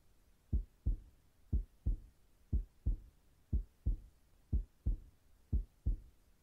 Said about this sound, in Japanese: トントンしてあげたかったけど、手が空いてないから、心臓の音聞きながら寝るじゃあもっとくっついて。